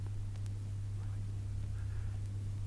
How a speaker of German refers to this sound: Weißes Rauschen im Kopfhörer meiner Zeitmaschine, stummer, kosmischer Lärm. Kein Klopfzeichen, kein Hilfeschrei. Funkstille.